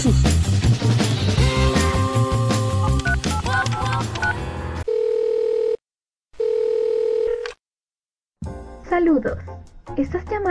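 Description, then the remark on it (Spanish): After a burst of music, two steady electronic keypad tones sound in succession while dialing the Anime Nexus telephone line, each lasting about a second with a short gap, loud, before a voice starts talking. “a la línea telefónica de Anime Nexus. Por favor escucha nuestro menú de opciones.”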